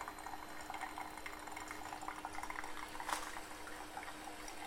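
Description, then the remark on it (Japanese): A steady, quiet trickle of hot water, just off the boil, pours from a Kalita coffee kettle into a coffee dripper for hand-drip coffee, with soft bubbling and hissing throughout and a brief brighter splash partway through. “で普通の多分ね普通の夜間でお湯沸かして普通の夜間からいきなり注いだら多分温度高すぎるんですよね。”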